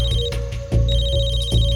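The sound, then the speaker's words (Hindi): A phone rings loudly with a call from an MLA, its electronic ringtone pulsing in a steady repeating pattern of sustained tones with brief breaks between bursts, no voices present. “MLA का phone”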